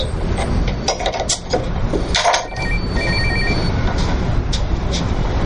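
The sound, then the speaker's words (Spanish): A mobile phone rings in a house, briefly with a short pulsing electronic tone, fairly quiet and partly buried under a steady, noisy background hum. “Un teléfono móvil suena en casa de Sara”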